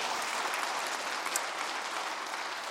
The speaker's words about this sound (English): And we're so excited about that. Yes, you can clap for that anytime, you bet.